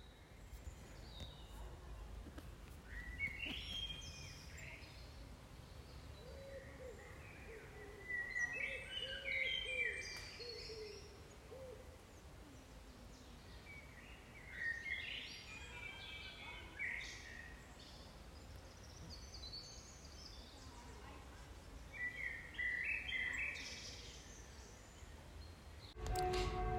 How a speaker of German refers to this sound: Ja, das sind doch mal entspanntere Geräusche als so ein vorbeiballerndes Motorrad wie in der letzten Folge. Das war eine Aufnahme aus einem Stückchen Wald, das wir heute entdeckt haben.